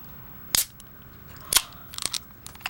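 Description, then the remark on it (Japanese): Sharp metallic clicks and a pop as a beer can tab is pulled, followed by a brief cluster of crackly fizzing, fairly loud against a quiet background. “はい、じゃ近づけはい、まず今缶缶のね缶を開けるところですね。”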